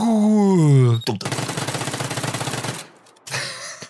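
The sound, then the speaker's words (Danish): A short jingle introducing a segment called "de 10 skud" (the 10 shots): a falling, wailing tone gives way to a loud burst of rapid machine-gun fire lasting about two seconds, then a brief pause and a closing musical tone. “som vi kalder de 10 skud.”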